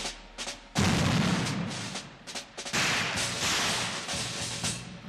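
Loud gunfire erupts in several sharp bursts, each followed by a heavy, rumbling roar that fills the space, like battle fire echoing with no one speaking: the shots fired in Sarajevo on 28 June.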